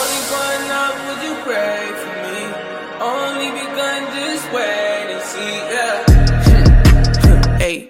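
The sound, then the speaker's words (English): An instrumental hip-hop intro plays on M&M Live Radio as its first hot track, with layered melodic synth tones and steady rhythmic hits, then a heavy booming bass and beat drop in loudly near the end. No one speaks. “So here's hot track number one.”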